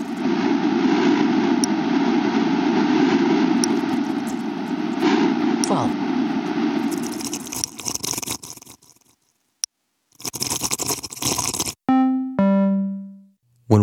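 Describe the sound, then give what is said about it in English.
A sonification of seasonal ocean carbon dioxide data: a steady, loud whooshing rush over a deep drone, like wind, representing CO2 release, gives way to choppy bursts and brief gaps, ending with two short, sustained electronic tones rich in harmonics. “we hear it all together, the ocean almost sounds like it is breathing.”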